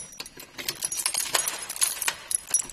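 Keys jangle and rattle in a lock as a door to the Amalie Dietrich site in Siebenlehn is unlocked. A rapid series of bright metallic clinks and scrapes with a few sharper clicks, fairly quiet, with no one talking.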